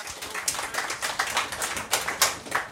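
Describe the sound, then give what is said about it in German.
A small audience of roughly 80 to 100 people on the market square in Güstrow applauds, many hands clapping in a dense, crackling patter that stays fairly quiet and steady for a few seconds, with no voices over it. “Einen kleinen Applaus für Horst Hennings vielleicht mal.”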